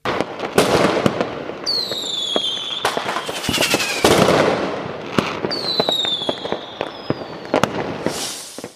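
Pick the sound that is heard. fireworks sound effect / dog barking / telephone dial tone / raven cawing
fireworks sound effect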